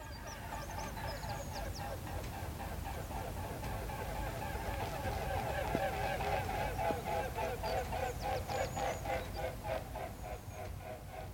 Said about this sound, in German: Ist hier eigentlich ziemlich viel Stille, also der Herbst ist einfach immer ein bisschen ruhiger, da sind nicht so viele Vögel, aber jetzt kommen da zwei so Schwäne.